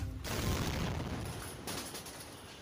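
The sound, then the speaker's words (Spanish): A car bomb in a white Toyota pickup truck explodes inside a military battalion base in Cúcuta, Colombia, on a Tuesday afternoon: a sudden, loud blast, then a heavy rumbling roar that keeps going, with another burst partway through. Very loud, and no one speaks. “Así explotó la tarde del martes un coche bomba dentro de un batallón militar en Cúcuta.”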